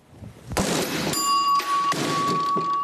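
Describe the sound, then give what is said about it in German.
A hammer thuds onto a Hau den Lukas strongman game at the Wiesn, then a bright metallic bell rings out with a long sustained tone that keeps sounding, struck again partway through. “Hau den Lukas”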